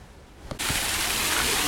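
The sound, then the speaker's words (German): After a brief quiet moment, a steady, dense rush of water from an outdoor waterfall at the brown bear enclosure of an animal park cuts in and roars on without a break, pouring and splashing continuously. “Und was ihr hört, ist wieder ein Wasserfall.”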